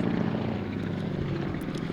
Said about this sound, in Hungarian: Ez, hú, közben egy vadászhelikopter húz el fölöttünk. Szerintem ez egy mentőhelikopter. Á, nem, nem olyan színes.